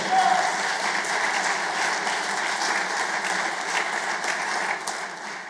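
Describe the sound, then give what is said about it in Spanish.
An audience applauds loudly in a dense, sustained wash of clapping that holds steady for several seconds before easing slightly at the end. “Si se lo va a dar, dáselo fuerte, pueblo.”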